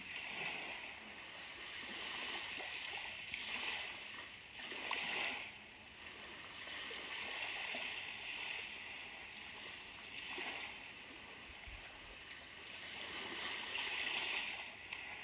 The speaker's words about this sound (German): Du kannst den Blick aufs Meer und die Wellengeräusche genießen.